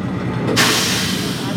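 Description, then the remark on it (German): A sudden, loud burst of hissing air from a 1960s railbus cuts in about a third of the way through and holds steady, over a low rumbling background. “Ach so, das war der, war der Schienenbus.”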